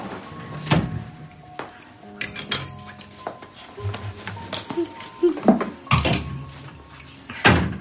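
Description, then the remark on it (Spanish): A wardrobe door is opened and shut as a trench coat is put inside, with sharp wooden clunks and light rattling of hangers, several knocks spread across the moment and a final solid close. “Se quita la gabardina y la mete en un armario.”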